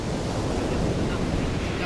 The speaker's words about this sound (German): Da türmt sich gerade eine Welle auf.